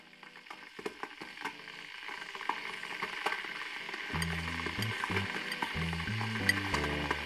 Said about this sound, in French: Est-ce que vous avez un truc à dire avant qu'on enclenche la bouilloire